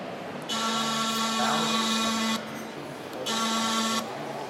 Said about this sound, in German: So, wir laufen jetzt gerade durch die kleine historische Ausstellung im Aquarium. Und was Sie gleich hören werden, ist das Pfeifensignal. Dieses Pfeifensignal wurde früher ausgesendet, um die Angestellten der Fischfabrik zur Arbeit zu rufen.